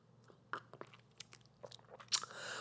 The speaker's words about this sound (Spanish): Espérate, déjame darme un trago de este té.